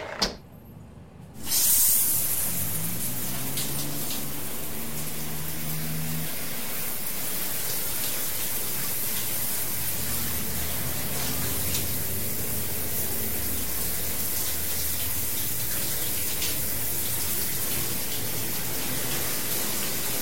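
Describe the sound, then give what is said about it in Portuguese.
After a brief quiet moment, a shower at home bursts on and runs steadily as a loud, constant hissing spray, with a faint low pipe hum early on, as someone showers to cool off on a hot night. No one speaks. “Ai, acho melhor tomar um banho para esfriar esse juízo.”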